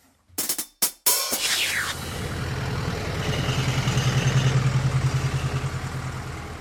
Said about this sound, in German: ja, ja, ja, da will man mal durch den Wald spazieren, um Stress abzubauen und ein paar Bäume zu umarmen und dann fahren hier irgendwelche riesigen Traktoren durch.